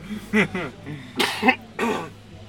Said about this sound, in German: Guck, schon Corona-Husten gekommen.